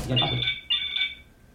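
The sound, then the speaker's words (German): A phone ringtone, edited on a computer with one second of silence added after it, plays two quick, bright trilling bursts, then fades into quiet. A brief voice overlaps the very start. “So, dann klingelt das.”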